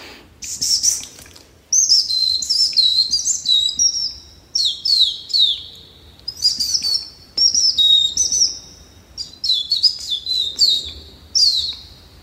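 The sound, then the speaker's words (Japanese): A person whistles convincing imitations of several different bird calls, blowing and drawing breath through a gap in the teeth, a run of bright chirps and trills in short bursts with brief pauses between, clear with no talking. “大体10種類ぐらいの鳥を呼びますね今できたりしますかやってみましょうか えやったお願いしますじゃあちょっと森に来たと思って、はい、聞いてみてください何種類かちょっとやってみますね”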